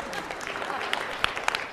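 An audience at a talk about raising children breaks into applause, a dense, steady patter of many hands clapping at moderate volume, with a few sharper claps standing out through the short burst.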